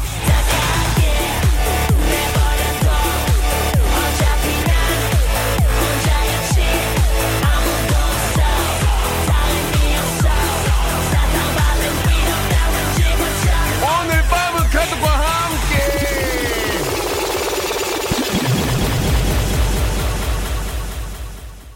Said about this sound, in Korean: 자, 박명수 레디오쇼, 예, 아, 리믹스 파리로 함께 했습니다. 아, 만들어진 셋이 아니고요. DJ 찰스가 직접 이 자리에서 생으로, 예, 라이브를 이렇게 믹싱을 해줬는데